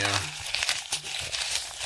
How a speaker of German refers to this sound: Hört man das denn überhaupt? Ja, man hört es ein bisschen. Man hat es gehört. Man kann es leider ein bisschen leiser hören. Ich habe hab den Pegel gesehen. Es raschelt.